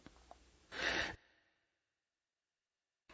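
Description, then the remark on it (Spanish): After a few faint stirrings, a sharp, forceful gasp of breath bursts out from a man who has been holding his breath, then trails off into near silence. “Veamos qué tan importante es la respiración para nosotros y para ello lo invito a contener el aire.”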